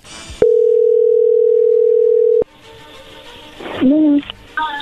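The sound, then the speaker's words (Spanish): A steady, loud telephone dial tone holds for about two seconds while a call is being dialed, then cuts off, followed by line noise and short tonal blips as the call connects. “no haga ruido, ahí se está marcando, vamos a ver qué sucede.”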